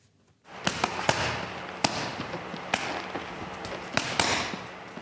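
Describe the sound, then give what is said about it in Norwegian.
Sharp, snapping punches from a professional boxer training with his coach at Oslo Boxing Club in Oslo land on pads or a bag in an irregular rhythm, about eight crisp smacks over a steady hiss of background noise, with no one talking. “er i aksjon på Oslo bokseklubb.”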